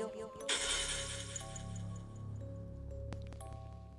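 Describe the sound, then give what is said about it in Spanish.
A glass wine bottle shatters with a sudden loud crash as it is struck against a doll, followed by a few seconds of scattered tinkling shards and a couple of late clinks, over a steady low musical drone. “la botella se rompió.”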